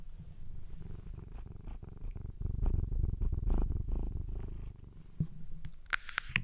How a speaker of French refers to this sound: Vous avez entendu tous ces ronrons Mon bébé